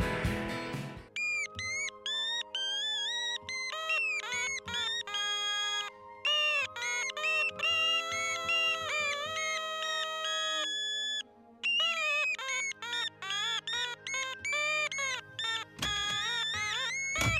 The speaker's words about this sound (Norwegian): Du får eh, en låt av en mann jeg liker veldig godt.